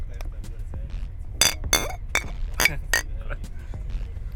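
Several beer glasses clink together in a quick toast aboard a train in Valais, Switzerland, a cluster of bright taps ringing out over a low rumble of background noise and murmuring.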